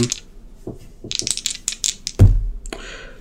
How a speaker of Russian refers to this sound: Да, поэтому давай попробуем брось кубики. Хорошо.